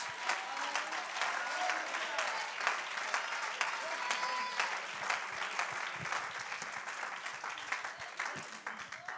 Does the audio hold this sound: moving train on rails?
no